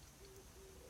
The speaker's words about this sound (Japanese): 鳩が鳴いてたので鳩も応援してくれると思って ほら聞こえるかな